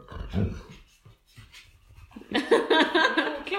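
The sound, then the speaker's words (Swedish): A dog named Lukas makes short, breathy vocal sounds, a few soft huffs followed by a louder, sustained whining or grumbling sound near the end, with no one talking. “Han tycker det är lite, lite få hundar med i Melodifestivalen.”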